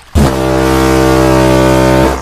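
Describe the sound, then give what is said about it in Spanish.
A single massive ship's foghorn blast, a deep, steady, loud bellow with rich harmonics that starts abruptly and holds for about two seconds before cutting off. “el piloto irredento que debió confundir los farallones con los muelles porque en aquel instante reventó el bramido descomunal de la sirena una vez.”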